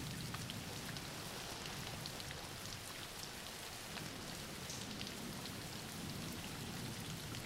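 Steady rain falls in a dense, unbroken patter, with countless small drops hissing across a surface at an even, moderate level and no voices.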